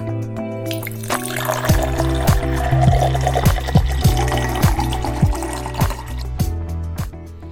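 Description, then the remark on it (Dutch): Whisky pours into a glass in a steady glugging stream lasting several seconds with rhythmic gurgles, fairly loud and with no voices. “Schenk je favoriete glas in en luister met ons mee.”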